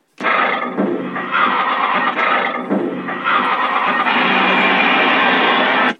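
A loud, continuous mechanical roar of a loading shovel running in ore mining, harsh and noisy across the whole clip, with grinding and clattering textures and no talking.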